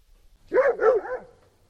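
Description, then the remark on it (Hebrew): A dog barks three times in quick succession, clear, the last bark trailing off into a softer whine-like tail. No one speaks. “הנה קול כלב.”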